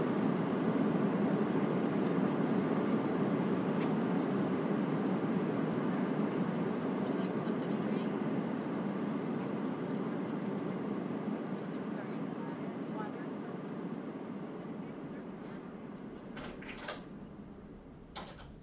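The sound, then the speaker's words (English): Steady airplane cabin noise during flight: a constant, dense low roar that holds level throughout, fading slightly toward the end, with a few faint clicks and muffled murmurs in the background. “my seatmates have now listened to me babble on and on about the sound of a plane long enough.”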